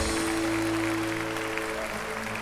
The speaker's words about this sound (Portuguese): aplaudir você mesmo.